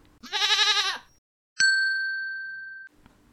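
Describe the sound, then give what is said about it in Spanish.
A single wavering sheep bleat, loud, lasting under a second, followed after a short pause by a clear, sustained bell-like ding that slowly fades. “Cuando no puedo dormir, cuento ovejas.”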